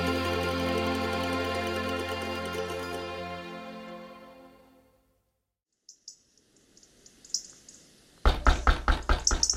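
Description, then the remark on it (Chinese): A fading sustained musical tone gives way to silence and a few soft bird chirps, then a fast, loud burst of repeated knocking on a door, sharp and insistent. “嗯，是谁在敲门呢？”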